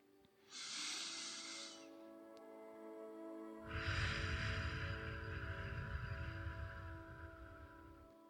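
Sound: breathing in through nose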